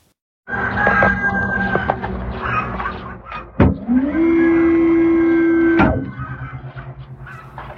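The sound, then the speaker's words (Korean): Chickens cluck and crow across a busy outdoor farmyard at an apple orchard, layered with steady ambient farm noise, while a sustained mechanical whine rises in the middle and cuts off sharply near the end. “일단 달기 엄청 우네요 주변에서”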